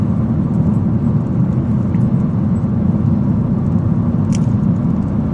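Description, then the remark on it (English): A car driving along, heard as a steady, unbroken low rumble of engine and road noise at a constant loudness, with one faint brief click near the end and no voices. “Just driving, officer.”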